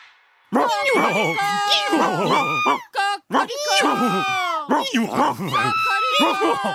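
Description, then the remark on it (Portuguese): Four animals, stacked on each other's backs in a pyramid, cry out at once at the donkey's signal in a loud, chaotic chorus of overlapping howls, brays and screeches. The din is continuous for several seconds, with only one brief break. “Ao sinal do burro, eles começaram a gritar ao mesmo tempo.”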